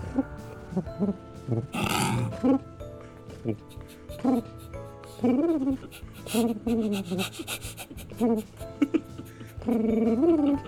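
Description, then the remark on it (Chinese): A song built entirely from pigeon coos: short, throaty, rising-and-falling coo syllables repeat in a steady rhythm over a sustained musical backing, moderately loud throughout. “这首就是这样子，就一直都是鸽子的声音。”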